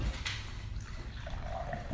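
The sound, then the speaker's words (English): Water pours steadily into a glass, a continuous splashing trickle with a faint rising tone near the end, with no talking. “could you pass the water, please?”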